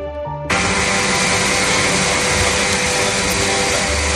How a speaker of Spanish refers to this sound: Y así suena la desaladora de Sagunto en la provincia de Valencia, de donde saldrá ese agua que luego como decimos, será llevada en barcos hasta Cataluña.